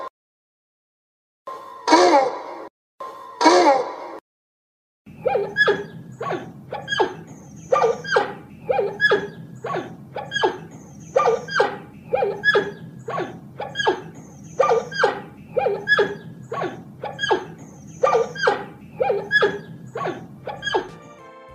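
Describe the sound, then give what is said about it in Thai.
Giant panda vocalizations: two drawn-out harmonic calls, a pause, then a long, steady run of short bleating, bark-like cries repeating about once a second over a low background rumble. “รู้แล้วเจ้าแพนด้ามาทักทายน้องๆ พอหอมปากหอมคอ”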